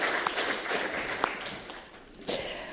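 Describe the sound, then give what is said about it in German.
An audience giving warm applause to a guest shown on a large screen, a steady dense patter of many hands clapping at moderate volume that dips briefly near the end before swelling again, with no voices over it. “Jetzt kann das Publikum Sie auch sehen und auch einmal nach, zu Ihnen nach Hause einen warmen Applaus.”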